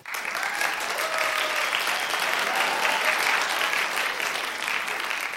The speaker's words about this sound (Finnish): Annetaan aplodit opettajille.